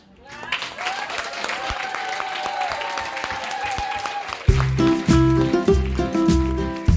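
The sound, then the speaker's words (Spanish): Steady audience applause for a female performer, with dense, crackling clapping, builds for about four seconds, then a loud rhythmic music passage cuts in and takes over. “y fue muy lindo, muy emocionante, la aplaudieron un montón y le salió espectacular.”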